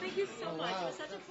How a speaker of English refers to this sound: Uh, you know, you could hear the buzz of the restaurant, uh, in the, in the background of, of the interview.